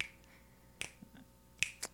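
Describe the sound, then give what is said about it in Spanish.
Sharp finger snaps crack out in a loose, steady rhythm, several crisp clicks spaced roughly evenly against a quiet background. “Chasquidos, Y te marcan el ritmo.”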